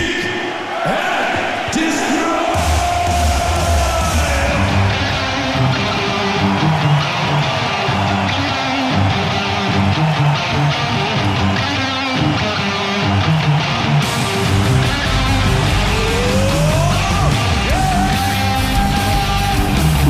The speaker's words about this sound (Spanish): Mira, vamos a escuchar un registro en vivo del festival Quebec Magnetic del año 2009 también.